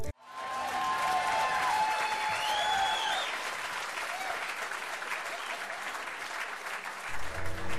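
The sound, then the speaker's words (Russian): An audience breaks into sustained applause, a dense wash of clapping that holds steady for several seconds, with a few whistles or cheers near the start before it tapers off. “Можно еще раз аплодисменты дать.”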